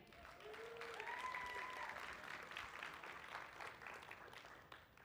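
Sustained applause from a sizable audience, steady and fairly loud throughout, with a few faint voices or whoops rising briefly early on before the clapping begins to taper at the end.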